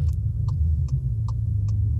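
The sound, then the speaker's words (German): A steady low motor drone, like a Thermomix food processor running, hums continuously in the background, with faint regular clicks about every half second on top. No one speaks. “das klingt nicht, als wenn der neben einem Auto Musik anhat, sondern als wenn der einfach einen Thermomix laufen hätte parallel”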